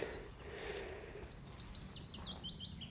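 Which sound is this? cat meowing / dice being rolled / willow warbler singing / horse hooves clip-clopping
willow warbler singing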